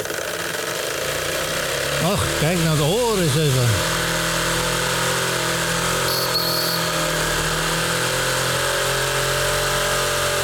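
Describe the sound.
A small steam engine runs with a steady hissing rumble throughout. A brief warbling whistle sounds near the start, and a man speaks briefly over it.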